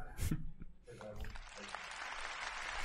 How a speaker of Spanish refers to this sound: Claro, se merecen aplausos.